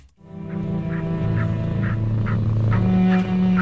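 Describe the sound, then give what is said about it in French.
Gentle electronic music made for cats, using the tempo of a cat's purr: a low, sustained humming drone and a steady, soft pulsing beat about twice per second, like a rhythmic purr, continuous, with no talking. “ils ont incorporé des tempos qu'aiment bien les chats, donc par exemple le tempo d'un ronronnement, le tempo d'un lapement de chat”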